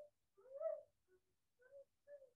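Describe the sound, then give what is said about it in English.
A dog whimpers in a string of thin, high whines: one drawn-out cry, a faint brief one, then two shorter ones. Fairly quiet, with no talking. “that's my dog.”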